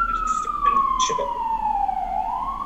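A single wailing siren tone sweeps slowly downward then begins rising again, loud and steady, with faint intermittent voice-like sounds and a low rumble underneath.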